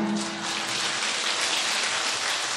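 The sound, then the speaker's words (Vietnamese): An audience claps steadily, a dense, even wash of many hands with no breaks for the whole stretch, fairly loud and bright, with no voices. “họ không có vỗ tay như mình gì tại sao quý biết không tại vì họ nhập trong thiền định họ có khả năng đó còn mình bây giờ trải qua gần ba ngàn năm bệnh mình nặng quá mình không có nhập trong thiền định thì mình phải hiện tướng vỗ tay”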